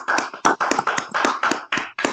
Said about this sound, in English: You know, matter of fact, round of applause. Everybody clap it up. Clap, motherfuckers, clap.